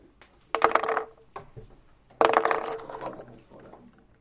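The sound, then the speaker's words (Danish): A marker squeaks and scratches dryly across a whiteboard in two fairly loud bursts of strokes, separated by a brief pause, the second burst longer and trailing off, as the marker fails to write. “Nu kan den her ikke skrive.”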